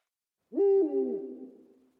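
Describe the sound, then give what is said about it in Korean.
A single owl hoot from far away, heard at a house in a city, a steady low tone that wavers and fades out over about a second and a half, heard alone against silence with a slightly distant, reverberant quality. “먼 곳에서 부엉이 우는 소리가 들려왔다.”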